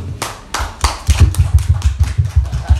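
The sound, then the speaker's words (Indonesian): Audience applause for the evening's guest speakers: a few scattered claps at first, then steady, fairly even hand claps with soft thumping underneath, loud and without talking. “Tepuk tangan dulu buat narasumber malam ini.”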